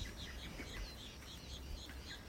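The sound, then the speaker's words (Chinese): Several small birds sing in a forest in repeated high chirping phrases, overlapping one another against a steady low rumble of background noise. The calls are fairly soft, and no one speaks. “你看，我们旁边有一只一只在唱歌的鸟，一直唱歌。”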